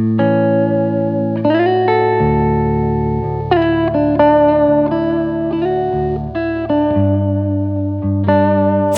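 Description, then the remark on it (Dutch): An electric guitar plays a series of sustained chords through the upper of the amplifier's two channels, a very woolly, thick, muddy, bass-heavy tone with some effects, changing chords roughly every second with no talking over it. “Nou, die bovenste gebruik ik eigenlijk nooit. Want die klinkt, die klinkt echt super wollig ja, of zo.”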